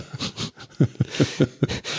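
A dog snores in a steady rhythm, each low, rumbling snort repeating roughly every fifth of a second, with soft breathy hiss between the snores.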